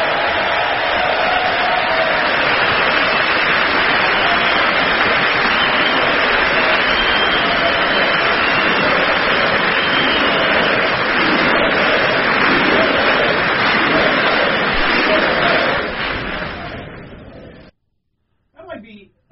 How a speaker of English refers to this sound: Oh, where's the Where's the super applause line? My favorite line of the speech.